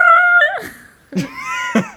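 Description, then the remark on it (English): A voice mimics an alarm bell: a loud, steady high-pitched wail that slides down and fades, followed by sharp vocal bursts and a warbling, siren-like tone. “Mine is when the uh, when the um, stem cell is like introduced into a new environment and it's like, oh, I have to change, and it's like the alarm bell that goes off in its head.”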